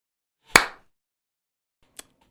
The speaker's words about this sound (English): when you're in the audience, how do you clap?